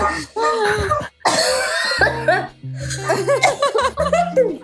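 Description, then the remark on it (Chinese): Harsh, noisy coughing bursts break out midway, surrounded by animated voices and what may be some laughter, the coughs loud and abrupt against the chatter. “想想你们的免疫系统在打扫战场，所以你们就在咳嗽。”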